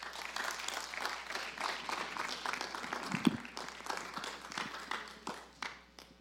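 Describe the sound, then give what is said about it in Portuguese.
A crowd applauds God after a prayer, a dense wash of many hands clapping at a fairly even level for several seconds, with a single sharper thump partway through before the clapping thins slightly at the end. “Você pode aplaudir ao nosso Deus.”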